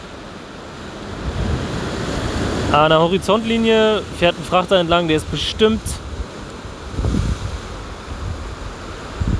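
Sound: ocean waves and surf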